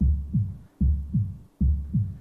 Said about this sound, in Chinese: 心跳，一下，两下。